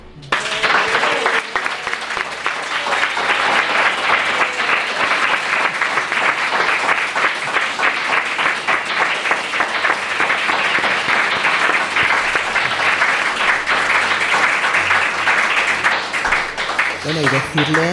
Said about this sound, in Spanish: Amigo, muchísimas gracias y este aplauso va para ti.